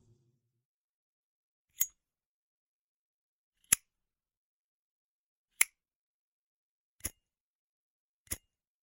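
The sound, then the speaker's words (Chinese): Five sharp, bright clicks spaced a second or two apart, a lighter being struck over and over while stranded on a snowy mountain, to set a vest alight for warmth, each snap brief and crisp against near silence with no talking. “等我一下，幸好我还带了打火机。”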